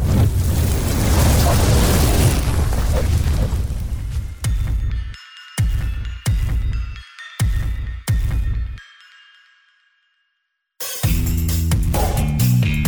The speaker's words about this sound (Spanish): En ese momento, la explosión me mandó a mí y a mi perro disparados este, hacia atrás y claro, todo prendió en llamas.